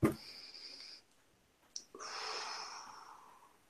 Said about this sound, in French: Alors une respiration.